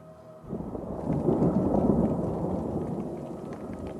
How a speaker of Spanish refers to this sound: La tormenta